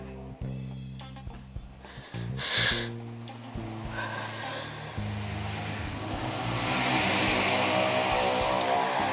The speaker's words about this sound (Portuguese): E lá vai uma moto.